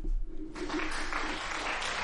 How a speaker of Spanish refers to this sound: Ahora, ahora sí que me he ganado aquí un aplauso. Venga.